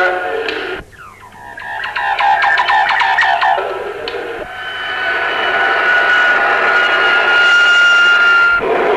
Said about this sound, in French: De la base B vient de décoller il y a quelques instants un avion à réaction télépiloté qui va pénétrer à l'intérieur du nuage atomique afin d'effectuer des prélèvements.